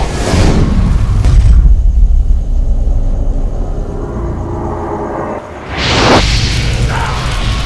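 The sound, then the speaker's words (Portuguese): A fireball spell aimed at the captain's soldiers bursts out in a loud fiery blast with a rushing whoosh, then settles into a long, deep rumbling roar before a second surging burst of flame flares up near the end. No one speaks. “Bom, eu avisei. Bola de fogo!”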